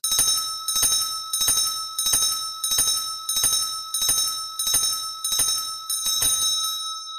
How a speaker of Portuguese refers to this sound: Eu comecei a bater o sino sem parar, tipo umas 10 vezes. 10 vezes?